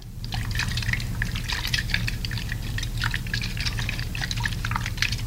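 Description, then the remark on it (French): Liquid swishes and sloshes steadily in a pitcher as sangria is stirred, with a busy run of bright splashy clinks over a low hum, moderately loud and without any talking. “On va le brasser dans le pichet.”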